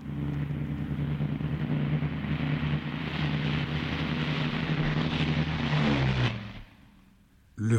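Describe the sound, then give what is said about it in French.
Heavy engines of a huge Flying Fortress bomber coming from the north over the commune of Saint-Jean-de-Mont around 4 pm on Thursday 16 September 1943 roar in a loud, deafening, steady, throbbing drone that holds for several seconds, then drops away abruptly before a brief final surge of noise. “Il est environ 16 h en ce jeudi 16 septembre quand un vrombissement assourdissant vient troubler la quiétude de la paisible commune de Saint-Jean-de-Mont.”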